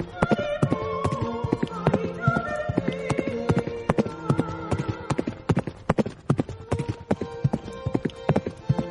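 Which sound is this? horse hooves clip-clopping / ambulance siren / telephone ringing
horse hooves clip-clopping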